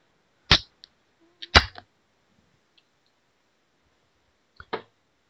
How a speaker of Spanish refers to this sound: Pero no sin antes abrirnos una cervecita